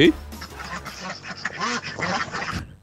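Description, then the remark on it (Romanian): A group of ducks quacking loudly, their harsh, nasal calls overlapping in a busy, continuous chatter for a few seconds. “Rațele face tare.”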